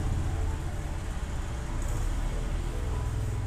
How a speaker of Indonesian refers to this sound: ini motor berisik banget